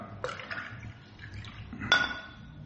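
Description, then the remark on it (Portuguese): Water being poured into a glass, with soft splashing and liquid sounds, a few light clinks of glass, and a brighter ringing clink near the end. Quiet, with no talking. “Peraí, deixa eu pegar água.”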